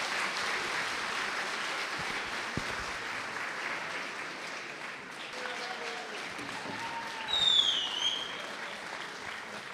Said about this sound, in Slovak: Nebudem klamať, ten potlesk na, na začiatku bol trošičku burlivejší, ale vy ste zistili, že na čo ste prišli.